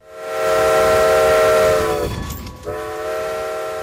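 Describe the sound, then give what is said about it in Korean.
A loud, sustained steam whistle blows for about two seconds, cuts out briefly, then sounds again over the rumbling, clattering noise of a moving early-20th-century steam train with wooden coaches on the Strasburg railroad, a tourist line opened in 1832 offering 7 km, 45-minute rides. “나무로 만든 객실이 달린 증기기관차들이 현재 운행되고 있다며 45분간 추억의 시골 기차 여행을 할 수 있다고 설명했습니다.”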